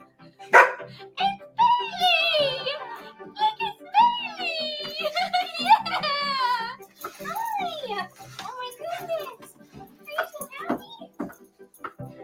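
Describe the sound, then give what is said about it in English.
A small puppy yips and whines excitedly, with high-pitched squeals rising and falling over several seconds, mixed with a boy's excited voice as he finds his lost puppy waiting for him when picked up from school, all slightly thin as if played back from a recording. “This boy, being picked up from school, is surprised by his lost pup waiting for him.”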